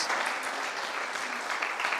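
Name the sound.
round of applause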